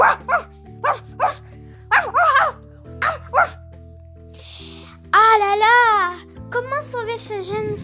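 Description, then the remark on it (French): A dog abandoned by its owner barks sharply several times in quick bursts, threatening a black alley cat perched on a bin in a dead-end street, then lets out longer, wavering yelps and whines, all over a steady sustained musical backdrop. “Et adorable surtout, menacé par un chien qui aboie.”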